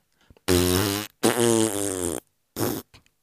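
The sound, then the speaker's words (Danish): Someone blows loud, buzzing raspberry-style fart noises with their mouth right into a microphone, three bursts: two long ones back to back, then a shorter one after a pause. “Kan du lige øh, kan du lige hæve niveauet lidt, i stedet for at lave prutte lyd ind i mikrofonen?”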